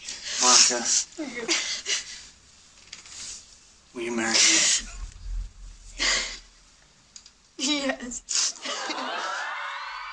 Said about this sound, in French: Donc euh, tu reniflais pas à cause du Covid Non, je précise que je renifle parce que j'étais en train de pleurer, parce que j'étais très émue.